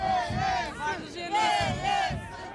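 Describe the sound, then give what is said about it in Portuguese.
A large crowd of Socialist Party (PS) supporters chants loudly in unison, greeting party leader Pedro Nuno Santos by the sea in Caxinas, Vila do Conde, Portugal, during an election campaign. Many voices rise and fall together in a steady rhythmic pattern, energetic, with no single speaker standing out. “Pedro Nuno Santos foi recebido por uma multidão de apoiantes.”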